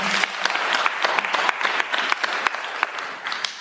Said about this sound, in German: Und äh, ich bin ehrlicherweise sehr froh, dass Sie mir die stellen, auch für den Beifall, den Sie bekommen haben für Ihre Frage.